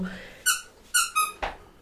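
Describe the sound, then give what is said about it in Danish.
A squeaky dog toy being chewed by a new puppy lying on the floor: three or four sharp, high-pitched squeaks in an uneven rhythm, each short and bright, with a soft thump at the end and no talking. “Det er min nye hundevalp, der ligger nede på gulvet og tykker i et piv-legetøj.”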